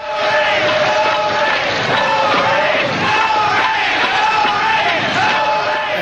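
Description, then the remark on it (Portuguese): A large festival crowd in the rain chants in unison against the rain, many voices shouting a rhythmic, repeated call ("fora a chuva") at a steady loud level, the mass of voices blending into a continuous roar with pitched, sung contours. “E aí começaram a gritar: não as chuvas, fora a chuva.”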